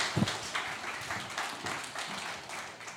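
Audience applause: a dense, steady wash of many hands clapping at once, moderately loud and sustained for a few seconds, with no voices heard over it.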